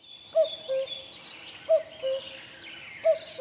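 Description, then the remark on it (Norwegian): A common cuckoo in Norway calls its two-note "cu-coo" three times in a steady rhythm, while other birds chatter and twitter faintly in the background. “Gjøken er avhengig av å legge eggene sine i andre fugler sine reir”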